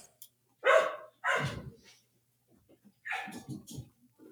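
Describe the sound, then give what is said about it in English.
Several loud pet dogs bark in quick bursts, two sharp barks followed by a pause and then another cluster of rougher barks and yips. “My dogs are going insane.”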